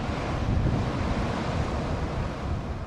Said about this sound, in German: Es stürmt immer noch auf Wangerooge. Große, drei, vier Meter hohe Wellen brechen sich vor den Düden.